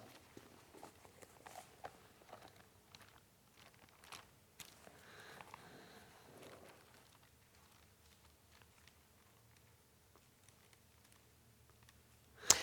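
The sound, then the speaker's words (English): Soft, scattered rustling of many Bible pages being turned to Exodus chapter 31, faint, with irregular papery flicks and light clicks spread across the stretch and no one speaking. “Now, I, I can hear pages turning, so I'm just going to assume when I get there, you've gotten there.”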